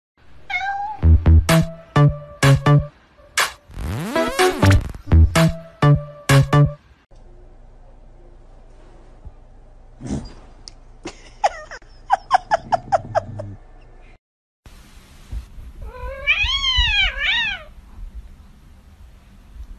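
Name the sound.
cats meowing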